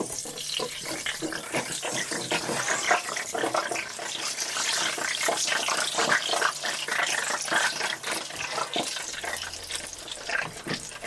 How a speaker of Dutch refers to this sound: dat geluid van die frituur. Ja, daar krijg ik toch nooit genoeg van.